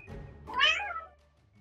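A single meow from a male pet cat, clear, rising then trailing off over about half a second, with no talking around it.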